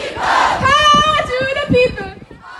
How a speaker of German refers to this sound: Sie engagiert sich mit Gleichgesinnten bei Fridays for Future, schreit und singt, wie ihr gerade im Hintergrund hört